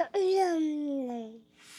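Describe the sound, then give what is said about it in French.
A baby lets out a single drawn-out vocal cry-like coo that slowly slides down in pitch, clear, followed by a brief soft breathy rustle. “Oh, il y a un bébé sur place, si jamais vous entendez des petits bruits intéressants.”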